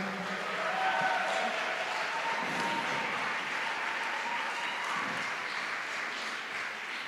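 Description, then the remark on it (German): A crowd applauds the worship team after a time of worship, a dense, even wash of clapping at constant loudness for several seconds, with a few faint voices murmuring underneath. “Vielleicht geben wir unserem wunderbaren Worship-Team nochmal einen Applaus.”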